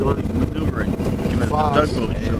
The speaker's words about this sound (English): They got two screws. They're like fans. This is why I fired up the motor. See how they'll spin around?